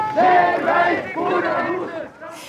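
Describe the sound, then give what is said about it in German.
A crowd of young protesters in Bern's city centre in the evening, early 1980, shouts and cheers together, a loud, dense mass of raised voices swelling in waves, then easing off near the end. “Das haben Demonstranten in der Berner Innenstadt am Freitag und am Samstag zu Abend gefordert.”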